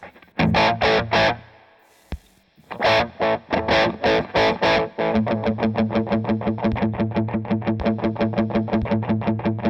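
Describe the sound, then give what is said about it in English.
Distorted electric guitar run through a delay pedal into a distorted amp: loud, gritty chord stabs in choppy bursts, a brief pause, then a steady stream of rapid repeating pulses. No one speaks. “And it's whatever the roll off or cut off that they're using on this just works with the distorted amp really nicely.”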